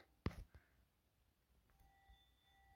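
A doorbell chime rings out as a clear, sustained bright tone that lingers quietly to the end, following a sharp knock-like thump near the start. No talking.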